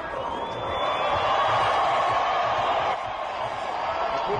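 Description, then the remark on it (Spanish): A large Mexican crowd cheers as Bottas comes out to take his place on the race podium, a steady wash of roaring and shouting that swells slightly and holds throughout, with no single voice standing out. “Ahí sale ya y Botas a ocupar su posición en el podio. Vamos a escuchar cómo lo recibe el público.”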